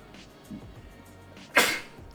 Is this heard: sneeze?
yes